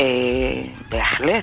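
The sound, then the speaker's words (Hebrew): The speaker's own dog gives a few short barks or yips with a whiny, tonal edge, cutting in over a person who is speaking; the dog is reacting to hearing someone. “אוי, זה הכלב שלי, רגע, אני לא, אסגור לא, את לא.”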